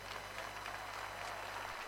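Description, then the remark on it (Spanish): A crowd filling a plaza at a festival in Cosquín applauds steadily, a dense, crackling wash of many hands clapping at a constant level for about two seconds, with no voices standing out and a low hum underneath. “Fuerte el aplauso para ustedes.”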